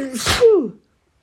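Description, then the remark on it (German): A single sharp, fairly loud sneeze: a quick breathy intake followed by a bursting, noisy expulsion that trails off into a short voiced tail, then silence. “Gesundheit, mein Schatz.”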